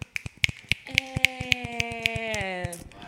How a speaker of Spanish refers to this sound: Aplaudan, aplaudan.